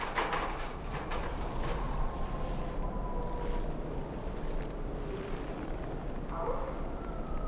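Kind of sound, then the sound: animal, dog howling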